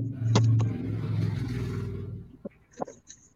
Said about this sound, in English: this truck is pulling in here next to me